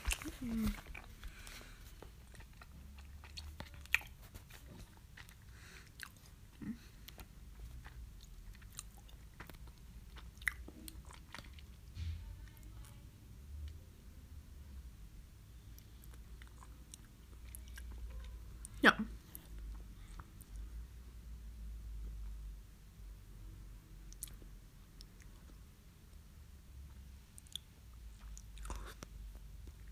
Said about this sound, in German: Mmm, nom, nom. Mmm lecker Marsch.